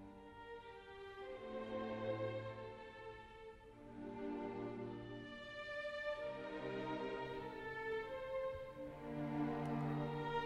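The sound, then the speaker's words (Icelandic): A recording of the Enigma Variations by Edvard Elgar plays steadily, with sustained strings and rich harmonic chords swelling and easing in slow waves, no voices over it. “þetta er hérna þetta eru Enigma Variations eftir Edvard Elgar það er eina óþar að spila það af því það er bara nákvæmlega eins og þú hljómar en það hljómar svona, fáum það inn”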